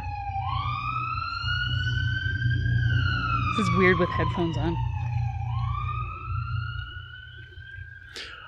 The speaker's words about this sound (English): let's pause for the siren as they pass yeah sorry to everybody they're getting closer